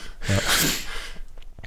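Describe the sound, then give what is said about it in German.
A single sharp sneeze with a quick voiced intake followed by a loud, breathy burst, trailing off into quiet breathing. “Das schneide, das schneide, ich nachher rein, Gesundheit.”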